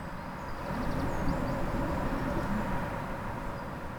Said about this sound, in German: Wettergeräusche verschiedene Wettergeräusche. Ich mag's, wenn der Wind laut ist. Das ist vielleicht nicht jeden Tag. In Island ein bisschen mehr als hier. Mm, aber ich finde es angenehm, wenn man drin ist und diese Geräusche hört.